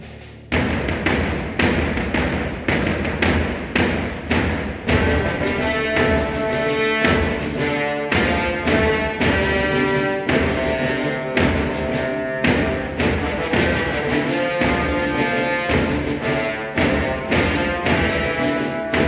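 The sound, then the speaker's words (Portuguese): Driving orchestral training-montage film score, loud and sustained, with heavy percussive hits pounding out a steady beat beneath bright, layered melodic lines that build in intensity. No voices. “ouviu aqui a obrigatória Training Montage, que ele faz muito bem.”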